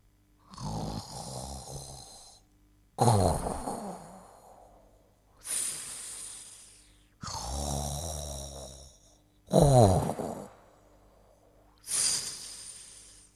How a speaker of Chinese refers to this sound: 蹦蹦畅快的打着呼噜，跳跳被逗得咯咯笑。每次啊，他听到蹦蹦打呼噜，总是觉得有些滑稽。